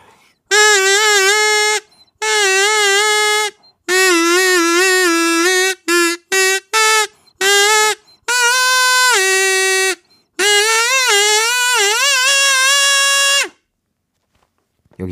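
A K-pop melody by a female vocal duo, heard as bright, sustained tones in a string of phrases of varying length, broken by short pauses and ending abruptly. No speech.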